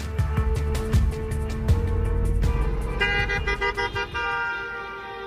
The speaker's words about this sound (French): Une centaine de voitures défilent en plein cœur de Bonn le dimanche 27 mars. La plupart des véhicules arborent des drapeaux russes ou soviétiques en signe de soutien à la guerre en Ukraine.